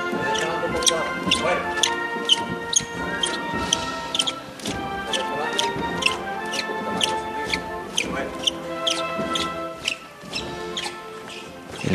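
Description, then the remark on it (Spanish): Busy ambience inside the parish church of San Bernardo as a procession returns: sustained tones ring through the space while sharp knocks and clicks recur steadily, with a murmur of many voices throughout. “El sonido en el interior de San Bernardo.”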